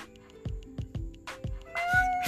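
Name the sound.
cat meowing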